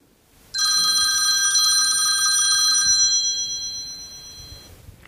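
A telephone at a telephone counselling helpline rings with a loud, bright electronic trill that starts abruptly, holds steady for a couple of seconds, then fades away, with no voices present.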